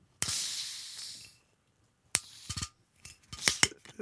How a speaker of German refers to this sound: Ähm, ist das der Korken, der jetzt knallt?